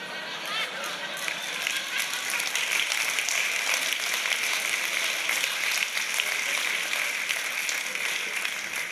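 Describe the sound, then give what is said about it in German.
Sustained audience applause for a Winston Churchill quip, a dense steady crackle of many hands clapping at an even, fairly loud level for about nine seconds, with faint murmuring voices mixed in. “Ja, wie gesagt, also der Applaus, der ist für Winston, ist ja nicht mein Spruch”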